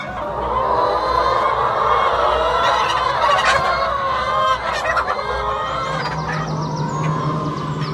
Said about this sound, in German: hat 8000 Ökohühner in vier Hallen. Wenn sie können, dürfen sie frei laufen. Die Hühner möchten doch immer im engeren Raum miteinander sein.